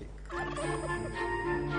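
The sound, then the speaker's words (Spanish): A turkey gobbles in a quick, warbling burst of rapid throaty notes, moderately loud, over a steady low background hum with faint sustained tones. “Y la mejor ave disponible era el pavo.”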